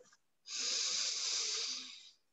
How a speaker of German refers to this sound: Und wir wechseln jetzt mit der Atmung durch die Nasenlöcher. Das heißt, wir verschließen mit dem Daumen das rechte Nasenloch, atmen durch das linke ein,